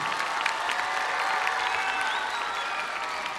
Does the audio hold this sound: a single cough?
no